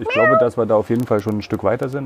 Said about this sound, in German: Das ist unsere Katze Lisa. Lisa Müller aus Köln. Hm, verträgt sich mit dem Hund? Ja, sie ist seine große Schwester. Sie hat ihn gut im Griff.